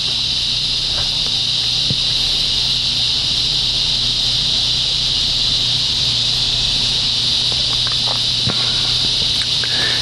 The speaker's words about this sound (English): I had no idea cicadas would become so important. But when you're looking for creatures that take up all the background, cicadas are like oh, second only to humans sometimes they say not even second.